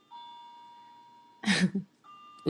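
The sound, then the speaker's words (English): A clock, handmade by the speaker's father, chimes with soft, sustained bell-like tones, like little Chinese wind chimes ringing and fading, briefly interrupted by a short burst of noise before another chime tone sounds. “A little Chinese wind chimes. oh, that's my my dad made that clock for me.”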